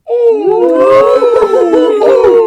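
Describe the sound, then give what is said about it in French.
Several people imitate owl hoots together at the start of the Couscous Social Club show, the day after the Couscous Comedy Show; their overlapping voices produce loud, drawn-out wavering calls that blend into a continuous chorus for a couple of seconds. “Un lendemain de Couscous Comedy Show, ça donne envie de faire des bruits de hibou, tout le monde.”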